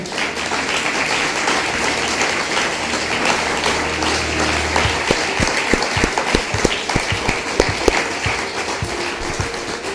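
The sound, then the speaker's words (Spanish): A crowd applauds in farewell with steady, dense clapping that fills the whole clip, and sharper individual claps punctuate the second half. No one speaks. “¿Por qué no despedimos a las Quejilot eh, Mundial con un fuerte aplauso?”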